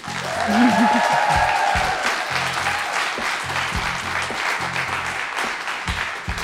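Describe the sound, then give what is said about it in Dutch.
Sustained audience applause for the two hostesses of the evening, a dense steady wash of clapping hands that holds at an even loudness throughout, with a few faint cheers or whoops rising briefly near the start. “Maar natuurlijk wil ik ook nog jullie bedanken en misschien een heel groot applaus voor onze twee gastvrouwen voor vanavond.”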